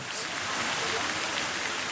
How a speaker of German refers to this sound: Im Norden und Süden des Petersplatzes dagegen plätschern friedlich die Brunnen Fontanas und Madernus.